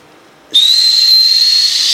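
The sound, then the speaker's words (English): A voice imitates a whistling firework with a single high, steady whistle mixed with breathy hiss, starting abruptly and holding loud for about a second and a half. “What's your favorite firework? Oh, the kind that land right on your head. Oh, dude. Uh. It's the one that goes.”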